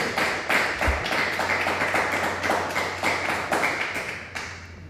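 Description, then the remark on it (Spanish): An audience at a religious gathering claps loudly and steadily for several seconds, applause given to the Eternal (God), a dense wash of hand claps with a faint rhythmic beat running through it, and no voices on top. “Así que, hermano, vamos a darle un fuerte aplauso al Eterno por todo esto.”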